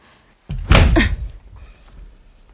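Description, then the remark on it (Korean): A woman walks into her own room and slams its door shut with a heavy thud, followed by a brief rattle and a fading resonance. “기가 막혀 그 모습을 지켜보는데 태연하게 자기 방으로 들어가 문을 쾅 닫아버렸다.”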